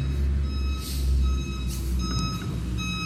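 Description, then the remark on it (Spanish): A garbage truck collecting the trash, now at the neighbors', beeps its reversing alarm in a steady repeating pattern over a constant low diesel rumble, with no one talking. “Todavía se oye el camión, está donde los vecinos aún.”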